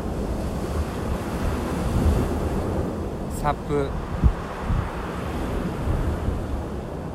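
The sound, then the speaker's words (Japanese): A steady wash of ocean surf and wind fills the whole recording as the waves grow rough, with a few soft splashes of water over a person at sea on a stand-up paddleboard, who speaks briefly partway through. “なんか波きつくなってきたなかかるかかるな水がまあいいや”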